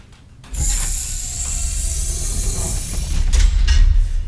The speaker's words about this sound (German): apropos Date, ich mache mal kurz äh, die Tür zu.